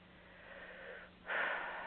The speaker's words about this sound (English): Now begin breathing very deeply, taking full deep breaths.